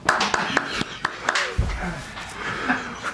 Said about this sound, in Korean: 여러분 나같이 박수.